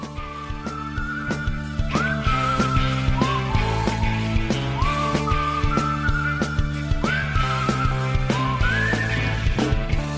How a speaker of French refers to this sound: On se quitte sur un de vos nouveaux morceaux.